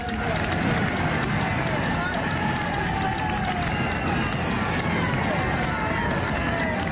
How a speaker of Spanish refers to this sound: A ver, escuchemos la ovación cuando pasa este cohete, esta flecha colombiana. El triunfo es suyo, no pasó nada. Le queda un kilómetro 400 metros para el remate. Escuchen ustedes el rugir del público. Ahí.